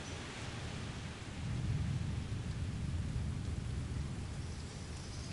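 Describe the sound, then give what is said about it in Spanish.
A deep roll of thunder, the second of a storm, swells in after about a second and rumbles on steadily, layered over a constant hiss of falling rain, with no voices. “La gente comienza a recoger todas sus cosas mientras vuelan hojas por todos los lados y se oye el segundo trueno.”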